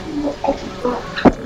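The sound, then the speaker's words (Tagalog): A single sharp, fairly loud sneeze bursts out near the end, preceded by a second or so of quiet, indistinct vocal murmuring. “Bless, bless you.”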